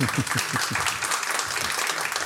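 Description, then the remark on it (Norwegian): An audience claps steadily as the managing director of Bayer Norge is called onto the stage, many hands producing a dense, continuous patter of sharp claps at an even loudness throughout, with no voices standing out. “Og dere får gi han en liten applaus, da, folkens.”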